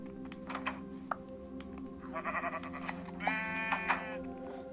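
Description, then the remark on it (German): Two wavering sheep bleats from a video game as the sheep are being sheared with shears, the second longer and steadier, over a steady low hum and scattered keyboard clicks. No one speaks. “Und zwar mit der Schere wollte ich nochmal die Schafe scheren, äh, damit wir mit dem, der Bettentaktik bald weitermachen können.”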